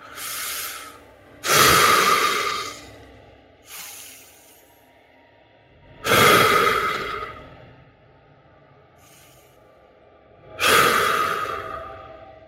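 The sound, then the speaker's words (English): A voice imitates the heavy, loud panting of a large dragon emerging from the rear of a cavern: big breathy gasps alternating with shorter exhales, repeating in a slow rhythm of three long surges, forceful with no speech. “You hear large, loud panting coming from the sudden dragon that emerged from the rear of the cavern.”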